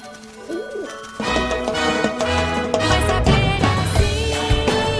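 Soft bird cooing, a rising-and-falling warble at the start, then bright orchestral music swells in and carries on, with faint cooing lost beneath it.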